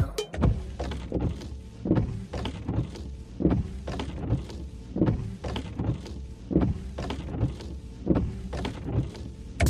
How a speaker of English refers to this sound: If you're in a car right now, you may be able to hear the real thing. That's because that's the sound of windshield wipers.